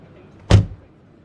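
A taxi's trunk slams shut once, just after the taxi door is closed gently: a single heavy thud with a brief low rumble that dies away quickly, in a quiet background with no talking.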